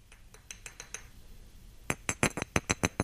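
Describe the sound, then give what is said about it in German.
Small plastic figurines of a corgi and the Queen tap together in a mock kiss: a few faint, evenly spaced clicks, a brief pause, then a quicker run of louder clicks with no voices. “Also Achtung, Geräusch kommt. Ist ein Kussgeräusch.”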